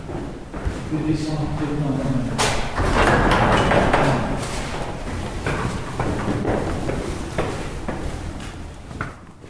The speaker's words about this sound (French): C'est une belle porte de bureau. Hein, Oui, elle a un son euh, de belle porte de bureau. c'est accueillant.